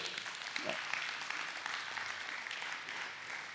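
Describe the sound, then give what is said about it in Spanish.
An audience at a church service claps steadily for Christ, a dense wash of applause at an even level for several seconds, with no one speaking over it. “Denle un aplauso a Cristo en lo que me eche un trago de...”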